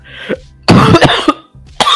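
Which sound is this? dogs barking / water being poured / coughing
coughing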